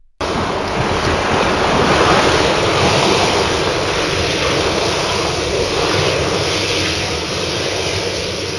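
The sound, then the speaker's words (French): Sea waves lap gently against a beach in a continuous, fairly loud hiss with gentle swells, no distinct breaks, and no voices. “clapotait gentiment contre la plage.”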